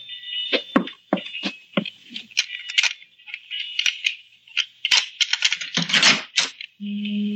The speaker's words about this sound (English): Where did you learn how to pick a lock?